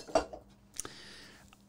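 A drinking glass topples over: a sharp knock, then a second clattering hit followed by a bright ringing tone that fades out over about half a second. No one speaks.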